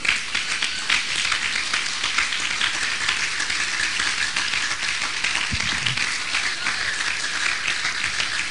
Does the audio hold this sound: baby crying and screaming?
no